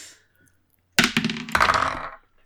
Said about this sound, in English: okay, we're going to roll dice